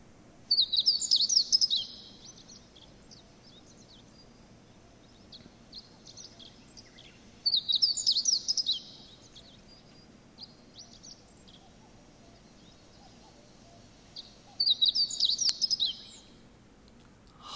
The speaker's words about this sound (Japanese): はい今聞いていただきましたけどもこの鳥は何かというとホウジロですホウジロ、えー、これもスズメの仲間なんですけども、まあ、見た目も、まあ、形態も大きさもスズメに似てますスズメの仲間なのではいでほっぺ、えー、頭部の頬あたりのあたりが白くなっているのでほうじろと言いますね